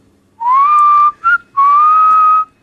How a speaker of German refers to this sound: pfeift jetzt erst einmal.